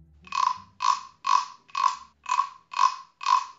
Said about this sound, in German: Also, das ist die Geschichte von der Dings, der Grille. Die war müde, denn sie hatte den ganzen Abend und die halbe Nacht diesen hier gemacht.